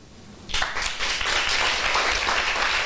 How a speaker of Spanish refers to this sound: un aplauso.